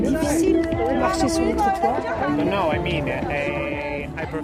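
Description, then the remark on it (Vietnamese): Dense crowd chatter fills the space, many overlapping voices at a steady, busy level with no single speaker standing out, at an outdoor street fair with two rows of stalls beside Hoan Kiem Lake. “Chỉ có điều là ở khu vực có nhiều gian hàng hỗ trợ thì quá ồn ào và cản trở việc đi lại.”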